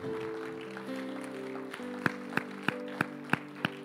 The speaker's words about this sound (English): So, uh, so church, if you'd all like to stand up on your feet, and the lady that raised your hand, if you'd like to come up the front, let's give her a clap.